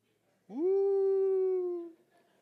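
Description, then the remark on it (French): A single long, mournful wolf howl in the woods rises quickly and then holds a steady, clear pitch for about a second and a half before fading, loud against otherwise quiet surroundings. “Tu seul, dans le bois, avec les loups.”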